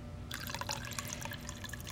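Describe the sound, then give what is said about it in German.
Water pours into a glass, a steady splashing trickle that starts abruptly and runs continuously for under two seconds, with no voices. “Möchten Sie ein Glas Wasser, Kaffee, Tee? Ein Glas Wasser wäre gut.”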